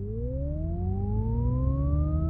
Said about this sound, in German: programmierte synthetische Innenraumklänge, einige mit mehr, andere mit weniger subharmonischen. Zusätzlich war noch etwas Rauschen beigemischt, mal leiser, mal lauter.